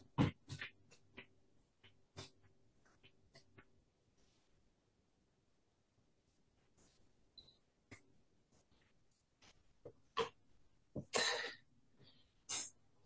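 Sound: dog barking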